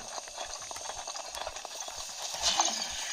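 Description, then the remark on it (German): Quick, steady hoofbeats of a horse in a video game clip-clop along at a brisk pace, moderately loud, with a faint hiss of ambient background noise around them. “Ich, wo ich nehme das Pferd mit.”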